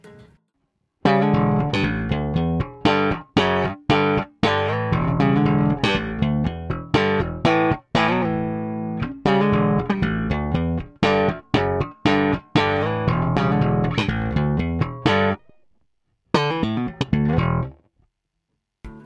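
Slap bass on a Precision bass, played alone in a punchy, percussive rhythm, with sharp popped notes and thumb thumps cutting in and out with brief gaps, loud.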